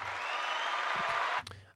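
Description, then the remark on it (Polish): A brief burst of dense applause, many hands clapping together in a steady wash of sound that cuts off abruptly, followed by a moment of near quiet. “ale na oklaski nie mamy zbyt wiele czasu, ponieważ mamy ograniczony czas audycji.”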